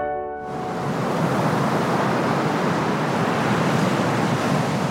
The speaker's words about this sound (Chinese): 是的，这是海浪的声音。